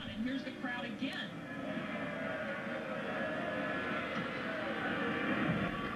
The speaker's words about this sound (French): Donc là, ce que vous pouvez euh, pas voir, mais que je vais vous décrire, c'est les huées que vous entendez sûrement lorsque bah, Vénus et Richard descendent des tribunes.